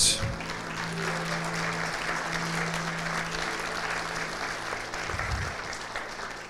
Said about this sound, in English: Wow. Can we just give a hand to everybody that shared?